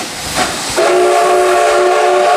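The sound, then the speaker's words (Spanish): A steam train hisses loudly, then its whistle blows a steady, sustained chord that holds to the end, strong over the rushing steam. “Nos vamos a tomar a un tren de vapor, por ejemplo, a ponerse un poquito así en plan viajeros románticos.”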